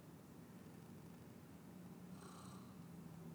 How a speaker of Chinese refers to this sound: 猫猫打那个呼噜声，就是代表那个什么呃，就是哎，它有有善嘛哈，想 他有可 亲近 能对开心或紧张， 对对对对对 对。 好了，你看哦，它的声音是这样哦。